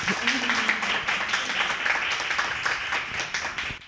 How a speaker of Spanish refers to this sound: Un aplauso, por favor, para ella. Gracias.